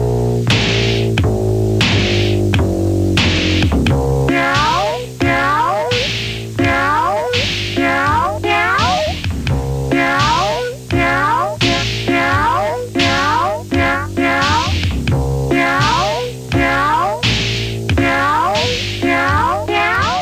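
Repeated cat meows pitched into a steady musical rhythm, sounding loud over a continuous backing of piano-like chords and a low sustained bass, with no talking.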